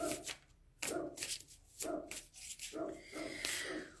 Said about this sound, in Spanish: Espero que no escuchen a Frodo ladrando.